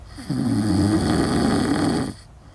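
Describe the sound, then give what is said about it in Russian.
A dog lets out one long, rumbling grunt, a low snorting sound held for nearly two seconds, fairly loud, with no talking over it. “и собака по кличке Особа. Особ, голос. Ты чё хрюкаешь?”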